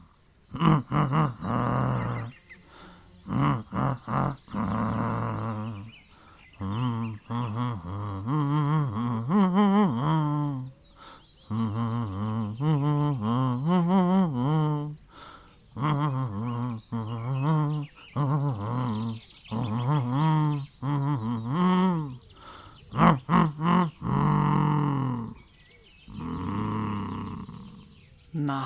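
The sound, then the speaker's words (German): A low, growly voice hums a melody in bear-like grunts, phrases rising and falling with short pauses between, loud for most of the stretch. “Hallo, ein Bär, der durchs Beet stapft und auch noch was brummt.”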